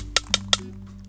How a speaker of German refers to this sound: Man hört den Stein.